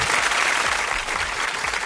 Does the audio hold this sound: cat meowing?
no